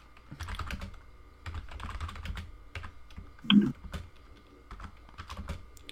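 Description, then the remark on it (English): Rapid, irregular typing on a computer keyboard while someone posts a tweet, a steady stream of light clicks and taps with one louder thump near the middle. No one speaks. “Here, sorry, I'm tweeting out.”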